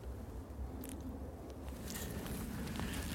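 Soft, steady footsteps crunch and shuffle through dune sand, walking up to the top of a dune where the Germans built an observation bunker, with a low rumble of wind or outdoor ambience underneath and a few brief scuffs.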